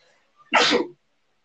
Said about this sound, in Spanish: ¿Qué pasó? Estornudaste.